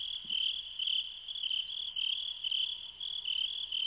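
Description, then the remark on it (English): A dense chorus of crickets chirps continuously in high, pulsing trills at the beginning of a song, steady and fairly loud throughout, with no voices or other sounds alongside. “Too many crickets, crickets. at the beginning cricket, cricket the beginning of that one.”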